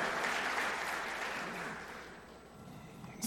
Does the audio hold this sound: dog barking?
no